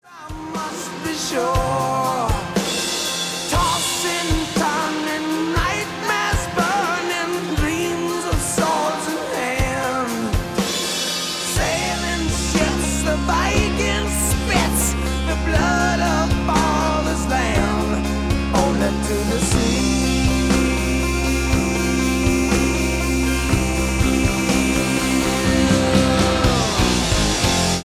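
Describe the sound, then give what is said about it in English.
A dense rock band mix with a bright mandolin part, played by a musician, woven in on the right channel, partly buried beneath driving guitars, bass and drums that thicken and grow heavier about halfway through. “Another instrument in the mix is a mandolin, played by producer ….”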